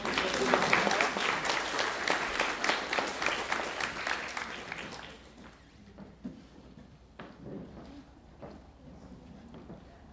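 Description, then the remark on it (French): A crowd claps steadily for about five seconds, a dense, loud patter of many hands, to encourage a young woman called to the bar in a courtroom-style scene, then the applause thins out into scattered faint claps and murmuring. “On peut peut-être l'applaudir pour donner plus de courage.”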